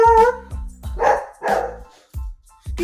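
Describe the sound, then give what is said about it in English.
A dog barks repeatedly in loud bursts, with a few rough, howling yelps mixed in over a few seconds, no one speaking. “that; that is my crazy dog”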